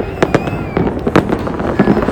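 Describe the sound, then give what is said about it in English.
Fireworks pop and crackle outdoors in a quick irregular series of sharp bangs, several bursts over a couple of seconds, moderately loud with a diffuse crackling wash between them. “Oh, there's more fireworks going off.”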